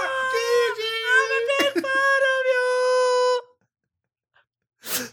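A long, high-pitched scream of about three seconds, held at a flat, squashed loudness as if clipped by a limiter, then silence and a short breathy burst.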